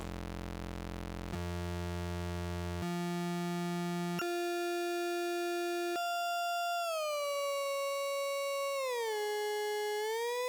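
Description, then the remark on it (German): A loud, buzzy synthesizer oscillator tone jumps upward in pitch in several distinct steps, then glides smoothly up and later back down as a potentiometer is turned to change its frequency, playing alone and continuously with no voices. “Das heißt, ich drehe jetzt an diesem Potty und bekommen deswegen eine veränderte Frequenz.”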